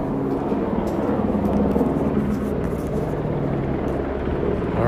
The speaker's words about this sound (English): Helicopters are hovering over a specific street here. Um, I'm gonna go take a look. Let's go see what they might be looking for. See what they might be checking out here. Yeah, these guys are hovering close